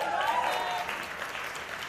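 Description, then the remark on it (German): A church audience applauds steadily as a preacher introduces his wife to preach with him, many hands clapping in a dense, even wash of sound that fills the whole moment at moderate loudness, with a faint voice briefly audible underneath. “Ein Applaus.”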